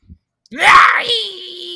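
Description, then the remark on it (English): A voice imitates a druid woman screeching and pointing: a single rising wail that holds a high, strained pitch for over a second before trailing off, loud. “As a druid, as this druid, and on the east side of the screen, on the uh, you know down to if you're looking southward towards these twig blights, um, east of you is a druid lady screeching and pointing in your general direction.”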